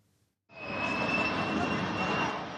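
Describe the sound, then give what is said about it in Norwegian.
A loud, steady aircraft engine roar kicks in after a brief quiet moment, a broad rumbling drone with a sustained high whine running through it, continuous; a plane dropping food supplies for displaced people in South Sudan. “Fly dropper forsyninger til noen av de mange sørsudanerne som har måttet flykte hjemmefra det siste året.”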